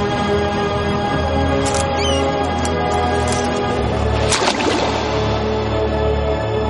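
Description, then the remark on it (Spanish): A steady, dense wash of ship and sea noise with a few brief high clicks, then one sharp splash as an admiral throws his sabre over the ship's rail into the sea, fading back into the ambience as the sabre sinks. “El almirante tira el sable al agua.”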